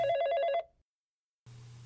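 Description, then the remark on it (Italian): A telephone rings with a bright, warbling electronic trill that cuts off, followed by a brief silence before a low hum and hiss resume, like a line picking up. “Un telefono, un maledetto telefono squillò a rompere l'idillio dell'osservazione.”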